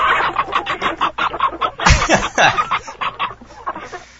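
Several chickens squawk and cluck in a loud, overlapping flurry, with sharp repeated calls piling on top of each other and one harsher squawk rising above the rest partway through.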